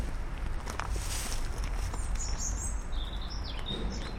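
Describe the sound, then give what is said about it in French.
Tits, redstarts and blackbirds sing in short, high chirps and whistled phrases over a steady outdoor rumble with faint patter, and no one speaks. “C'est marrant, t'as des palons, des mésanges, des rouges-queues, des merles.”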